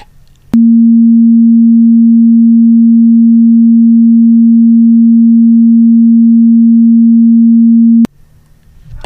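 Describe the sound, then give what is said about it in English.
A steady, pure sine tone of about 230 hertz, demonstrating the former average pitch of women's speaking voices, holds one unchanging mid-low pitch for about seven and a half seconds. It is loud and constant, starting and stopping abruptly with quiet moments on either side. “The higher one, around about 230 hertz, 230 cycles a second, is the sort of basic fundamental frequency.”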